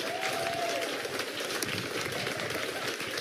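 An audience applauding: steady, dense clapping that holds at an even loudness for a few seconds, with a faint whistle near the start.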